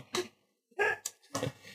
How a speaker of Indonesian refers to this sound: Galon nih gonggong.